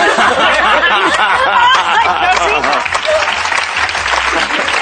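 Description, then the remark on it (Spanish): A studio audience applauds steadily for about five seconds, a dense, even wash of clapping with scattered laughter and chatter mixed in. “Y vamos así, con este aplauso sincero y, y lleno de cariño.”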